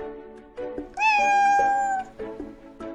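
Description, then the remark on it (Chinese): A cat gives a long, drawn-out meow at high pitch, steady and loud for about a second, with shorter, softer mews and vocal chirps before and after it. No one speaks. “你喜欢猫吗？”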